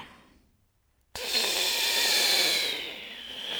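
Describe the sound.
A breathy, hissing whistle through the nose with a thin high tone running through it. It starts abruptly after a brief silence and holds steady for a couple of seconds, with no talking.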